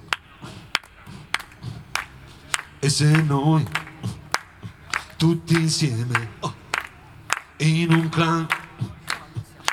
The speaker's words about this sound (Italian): Però diciamo ci vuole un po' di contributo, adesso dovreste provare a battere le mani con me che fa così.